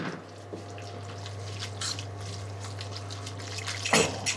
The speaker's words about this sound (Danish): Så kører jeg løs. Ostekrem ud over den kogte spaghetti.